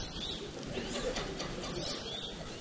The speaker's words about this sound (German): Wald. Der Wind rauscht. Man hört den Bach ganz fern. 100 Meter weiter links. Der Psychovogel.